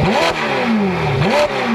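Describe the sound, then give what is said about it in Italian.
A powerful V8 sports car engine revs hard twice, its deep growl rising and falling in pitch with each throttle blip, loud with no talking. “Ora, provate a immaginare una Ferrari o una Lamborghini senza il sound di un bel V8,”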